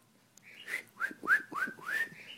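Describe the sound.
Someone whistles a short run of about five chirpy, rising notes in quick succession, mimicking a bird's tweeting. The whistling is moderately loud, with no talking.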